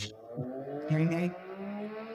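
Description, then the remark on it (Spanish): A motorcycle roars past at high speed, its engine whining and revving loudly for a couple of seconds as it sweeps by. “acaba de pasar una moto a todo.”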